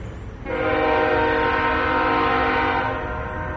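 A train horn blares in one long, steady, loud blast, starting suddenly and holding to the end over a low rumble of the passing train. No voices.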